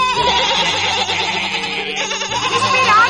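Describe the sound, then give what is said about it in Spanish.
Several lambs bleat together in a continuous, overlapping chorus, loud, with wavering high-pitched cries filling the whole moment. “Todos corderitos, como me pidieron vuestras madres ovejas.”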